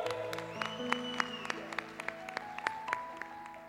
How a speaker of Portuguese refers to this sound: Por favor, gente, dá uma salva de palmas para eles, que eles merecem muito.